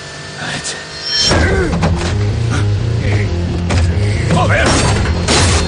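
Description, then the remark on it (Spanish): After a quiet moment, a heavy thump lands on a car body as the Tsar leaps onto the trunk of a fast-moving car carrying three people, then a loud, steady engine roar takes over with scattered metallic clunks and rattles. “Los tres avanzan rápido en el coche cuando de repente el zar se lanza sobre el maletero.”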